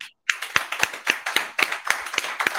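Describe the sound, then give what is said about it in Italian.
A crowd applauding, with the clapping falling into a steady, rhythmic beat of about four claps per second over a dense wash of hands. Fairly loud, with no talking. “Voglio sentire un applauso gigantesco.”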